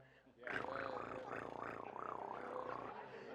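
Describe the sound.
A person imitates a cat purring, as when a cat is rubbed the right way, with a steady, rolling vocal rumble that wavers rhythmically for a couple of seconds, fairly loud, with no other sounds around it.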